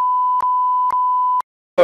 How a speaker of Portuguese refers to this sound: coloca um bip nesse nome aí.